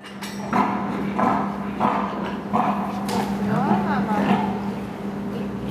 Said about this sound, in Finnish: Mitäs tämä emakko halunnut sanoa? Hän vähän ilmoittaa, että jaha, ootko tänne tulossa? Hän on tosi sellainen suojeleva äiti ja ottaa kantaa toisten emakkojen käyttäytymiseen hyvin, hyvin vahvasti omalla äänellään.